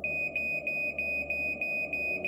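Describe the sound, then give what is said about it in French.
A smoke detector alarm in a kitchen shrieks with a steady high-pitched tone, pulsing in rapid repeated bursts about three times per second over a low background hum. “Et là, au même moment, j'ai dans la cuisine euh, le détecteur incendie qui se met à hurler.”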